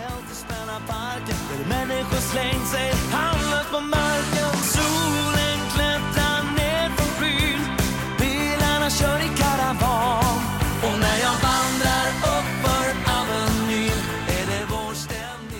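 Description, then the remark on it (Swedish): A dansband song plays continuously at a steady, fairly loud level, a full band arrangement with a bouncy, danceable beat and no talking over it. “Ja, för den, den känns ju ändå väldigt dansant den här låten.”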